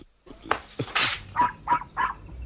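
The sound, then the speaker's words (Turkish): A puppy hidden inside a man's shirt whimpers in three short, high-pitched whines at a steady pace, after a brief rustling burst, with no talking. “Bu köpeği gömleğin içinde sakladığını anlamadın mı sanıyorsun?”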